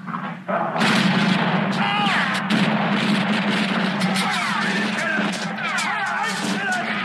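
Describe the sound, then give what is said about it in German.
A loud, sustained barrage of rapid gunfire from sheriff's deputies firing their guns, shot after shot over a constant low rumble, with shouting voices mixed into the din. “Aber seine Hilfs-Sheriffs, die sind halt, ja, trigger-happy und ballern drauf los.”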